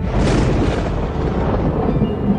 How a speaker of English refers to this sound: Well, Penny warns the now distracted Smith to hurry up, but just then, a severe bolt of lightning strikes too close for comfort.